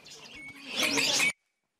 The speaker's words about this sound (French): Voilà le marché aux oiseaux de l'île de la Cité à Paris qui va devoir euh, fermer.